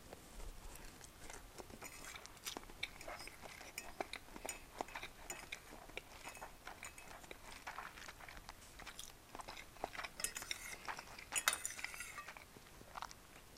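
Cutlery clinks and taps against a plate in quick, irregular bursts while someone eats spaghetti they made, with soft chewing and slurping sounds between. No talking, and the clinks bunch up briefly near the end.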